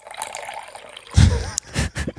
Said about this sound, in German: das war das Geräusch von Apfelsaft, äh, das eingeschenkt wird.